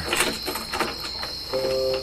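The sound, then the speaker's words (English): A few sharp metallic clicks and rattles of the front door of a KFC restaurant being locked after it shuts down for the evening, followed by a steady electrical hum, with a thin high whine throughout. “Ace sees April lock up the front door.”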